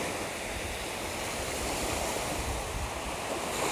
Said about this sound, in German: warum sollte ich denn Hintergrundmusik nutzen, wenn ich doch so ein schönes Meeresrauschen generell schon als Hintergrund habe. Ein bisschen weiter hinter mir ist dann auch mein Platz. Das heißt, das Meeresrauschen wird da hinten ein bisschen leiser.